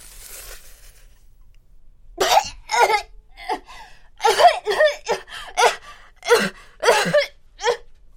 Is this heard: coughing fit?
yes